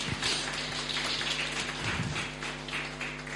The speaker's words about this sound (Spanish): Dele un fuerte aplauso al Señor.